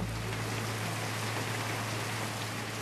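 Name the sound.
heavy rain falling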